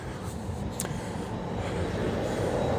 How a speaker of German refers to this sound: Ich laufe gerade auf die Bahnhaltestelle zu und schon kommt äh, die Bahn an mir vorbeigefahren.